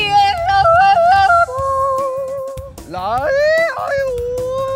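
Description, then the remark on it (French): A woman yodels alone, her high voice flipping rapidly between two pitches in a bouncing rhythm, then holding long notes and sliding up and down in loud, ringing phrases. “la voix que vous venez d'entendre yodeler”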